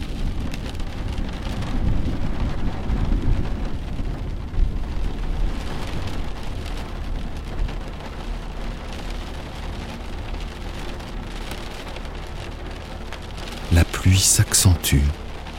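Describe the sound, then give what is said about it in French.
Steady rain hisses throughout as a thunderstorm rolls in, with deep low rumbling of thunder early on and a few sharp, loud cracks bursting out near the end. “Les oiseaux, qui continuaient à chanter près de vous, se taisent peu à peu, laissant place au grondement qui se rapproche.”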